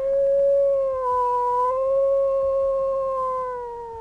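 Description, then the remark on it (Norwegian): A long, wolf-like howl, heard while sitting around a campfire on a trip, holds one drawn-out note for several seconds, its pitch wavering gently. It sounds clear and fairly strong, with no voices over it. “Hva da? Var det en ulv?”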